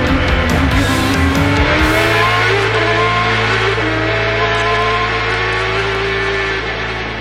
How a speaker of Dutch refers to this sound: Ja, dat klinkt toch wel lekker hoor, die Champ eh, Cars uit 2007. Mooi clipje.